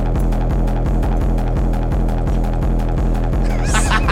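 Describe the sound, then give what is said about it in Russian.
A loud electronic track snippet with a deep, booming 808 bass pulsing in a steady rhythm, layered with an octave synth line and almost no kick drum, playing without any voices. “это 808-я. 8 а Без, да? атаки, да. И с наложенным синтом в октаву.”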